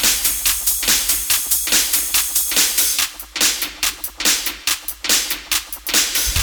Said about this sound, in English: I wanna hear you clap. I wanna hear you clap. Yeah. Yeah. Clap your hands.